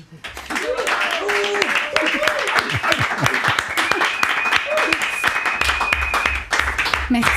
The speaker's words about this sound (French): Est-ce que nous, on peut applaudir en retour